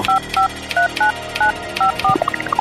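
A quick run of about seven touch-tone keypad beeps, evenly spaced and fairly loud, dialing an access code, followed by a short series of rising electronic chirps.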